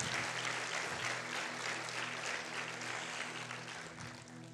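An audience claps steadily for several seconds, giving applause to the word of the Lord after a Bible reading, a dense, even wash of many hands applauding that fades slightly toward the end, with a low steady hum underneath and no speech.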